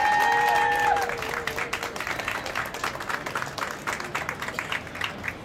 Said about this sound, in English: Let's have a round of applause for our experts.